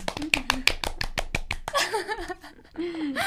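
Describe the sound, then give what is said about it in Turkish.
A brisk run of about a dozen sharp hand claps in a quick, steady rhythm, with voices and laughter over them; the clapping stops and talking and laughing carry on. “Alkışlayalım mı bir?”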